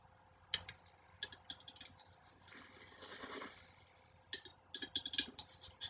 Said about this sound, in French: déploie ses ailes et séduit sa belle avec euh, toute une série de bruits. mais en tout cas, voilà, ce coq de bruyère, donc, il m'a bien séduit.